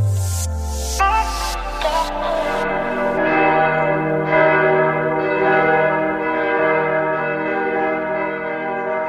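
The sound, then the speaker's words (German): Church bells in Germany ring out in a steady, overlapping peal calling Christians to prayer, their resonant tones layering and sustaining continuously, fairly loud and full with no voices present. “So klingt Deutschland, wenn Christen zum Gebet gerufen werden.”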